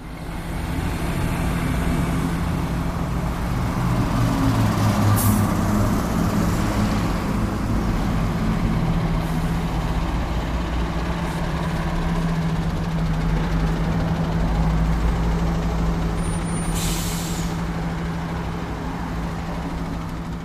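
A steady low rumble of many car and truck engines idling in a traffic jam on a completely clogged access road at the foot of the Schlossberg, a continuous droning hum with occasional faint rattles and shifts, no voices.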